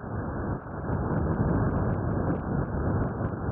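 Sonified vibrations of a bacterium on a graphene drum, made audible by researchers at Delft University of Technology in the Netherlands: a dense, steady rushing rumble like heavy static, with faint scattered crackles on top, continuous for the whole stretch and with no voices.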